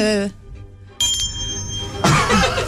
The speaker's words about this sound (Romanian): Vreau să spun că aceste sunete de clopoței și această magie a Crăciunului